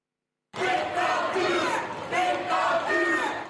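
A large crowd of protesters with raised fists shouts and chants together in the streets of The Hague, facing police using water cannons, angry at a government decision to impose a partial lockdown; loud, with raised voices surging in waves over a dense roar.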